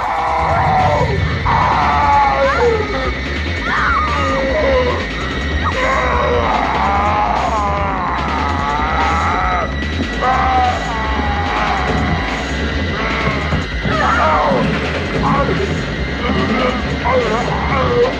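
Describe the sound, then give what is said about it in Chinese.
Freddy, a film character with his whole body on fire, howls and yells in pain while struggling to chase the heroine. His loud, strained cries waver up and down in pitch, repeating again and again over a steady, pulsing low rumble. “全身着火的他痛苦的嚎叫着，挣扎着想要追杀女主，但是却有心无力，最终被一把推下了楼梯，关在了地下室。”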